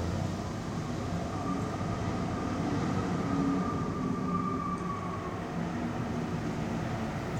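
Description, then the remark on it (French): A steady, full roar of wind rushing through fir trees in snowy country, lifting the snow and forming drifts, broad and unbroken like a passing train, holding loud and even for several seconds with no voices. “un petit peu comme un, chemin de fer, qui, oui, un train qui passe quand il y a du vent dans les sapins.”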